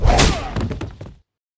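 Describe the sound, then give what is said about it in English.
A single heavy sword strike in a duel lands with a sharp, loud thwack, followed by a few quick, fading rattling knocks before it cuts off abruptly. No voices. “Then he struck once.”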